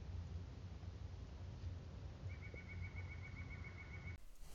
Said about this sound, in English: I hear some birds. Birds we hear. Hear ye bird.